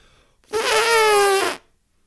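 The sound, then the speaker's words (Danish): A man vocally imitates an elephant's trumpet: a single loud, brassy blare held for about a second, with silence before and after. “Og jeg skulle efterligne en elefant”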